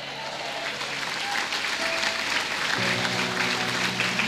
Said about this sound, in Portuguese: Dá uma glória a Deus, um aplauso, faz alguma coisa.